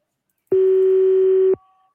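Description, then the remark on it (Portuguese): A single loud, steady telephone busy tone after a dropped phone call sounds for about a second, cutting off sharply, with no voices around it. “Não, não, eu falei, só que ele não tava me escutando, a ligação caiu.”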